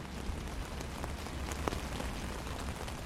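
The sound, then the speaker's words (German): Steady cold rain patters on a hard surface at an open-air music festival on a Baltic Sea island, a dense continuous hiss with scattered sharper drops ticking through it, moderately loud, with no voices. “Drei Tage in Kälte und Regen, zum Teil mit heftigen Sturmböen.”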